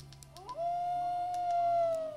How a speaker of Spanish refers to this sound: Me dio miedo. ¿Cómo te ¿Cómo te voy a relajar a dormir con un lobo que anda rondando, weón, por la carpa, weón? Me miedo, weón.